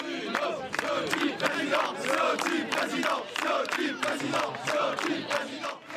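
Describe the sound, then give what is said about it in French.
Party supporters at a right-wing party's summer gathering cheer and shout loudly and continuously, each camp backing its leadership contender, with sharp claps cutting through in a rough rhythm, the roar of many voices never letting up. “Et c'est à qui applaudira le plus fort.”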